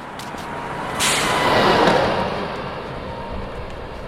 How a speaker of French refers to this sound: Voilà, je pense que vous entendez bien les voitures. Je suis sur la voie rapide qui donne entre le village de Grabel jusqu'à Saint-Clément-de-Rivière et Saint-Gély-du-Fesque.